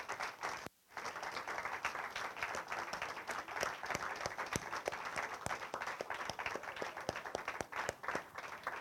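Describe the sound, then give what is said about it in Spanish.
A church audience applauds God steadily, a dense wash of many hands clapping at once with sharp individual claps standing out, sustained for several seconds after a brief pause at the start. “Dale un fuerte aplauso a Dios.”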